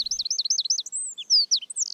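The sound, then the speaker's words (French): A Eurasian wren sings alone from a branch in a city square, a rapid, high, piercing run of repeated chirping notes that tumbles into brisk warbles and sharp whistles, loud. “Cet oiseau, c'est le troglodyte mignon.”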